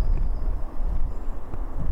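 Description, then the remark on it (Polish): Wind buffets the microphone outdoors amid slowly melting snow, in a steady low rumble with uneven gusty swells throughout. A faint thin high tone drifts in the background. “i wiatr, który niestety ciągle tutaj mi dmucha.”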